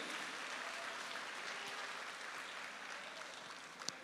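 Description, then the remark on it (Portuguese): An audience applauds the Lord in a steady, dense wash of clapping that holds at an even level throughout, with a brief sharper clap standing out near the end. “Aleluia, aplauda ao Senhor, glorifique o nome dEle.”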